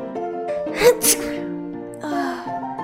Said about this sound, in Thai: แม่ของเธอนั้น ป่วยมาก เธอได้จามพร้อมกับสูดจมูกฟุดฟิตฟุดฟิต แม่ขอโทษนะ แม่เป็นไข้หวัดใหญ่